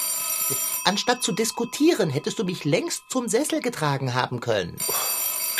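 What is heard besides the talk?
telephone ringing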